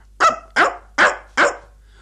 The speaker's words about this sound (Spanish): Y lo propio sucedió con un perro que ladró.